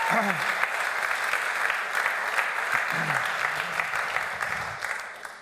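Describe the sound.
An audience claps steadily throughout, a dense, even wash of many hands with a few sharper claps standing out, while faint voices murmur underneath.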